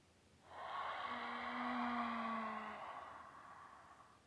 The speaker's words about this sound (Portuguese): Então a gente inspira pelo nariz. E vai soltar com abrindo a boca e fazendo barulho de oceano.